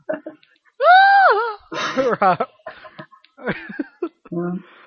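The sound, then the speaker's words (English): A person lets out a loud, shrill screech imitating a pterodactyl-like creature, about half a second long, followed by raspy, choppy vocal bursts and what sounds like laughter. “Good old pterodactyl banshee hybrid.”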